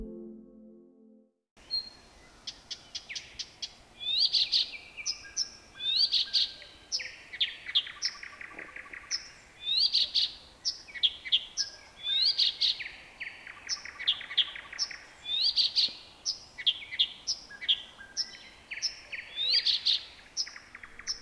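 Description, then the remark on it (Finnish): A single marsh warbler sings a continuous, fast-changing song of rapid chirps, trills, whistles and buzzy notes, mimicking many other species so it sounds like many birds in turn, including great tit, blue tit, barn swallow, white wagtail, common rosefinch and chaffinch; clear, with no talking. “Tässä laulaa kuin olisi monta lintua. Oikeasti tässä on vain yksi. Lintu, joka on Suomen paras laulaja, joka matkii kymmeniä muita lintulajeja.”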